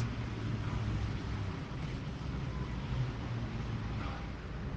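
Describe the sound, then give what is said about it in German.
A heavy excavator engine rumbles steadily, making the ground vibrate, a dense low drone that holds an even loudness throughout with a faint hiss on top and no voices. “Ich sehe einen Bagger. Ich höre ihn auch, ich spüre ihn auch, der Boden vibriert.”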